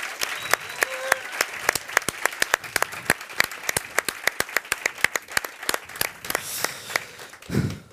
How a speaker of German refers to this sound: Könnt ihr noch bitte einmal einen fetten Applaus für die Leute machen, bitte?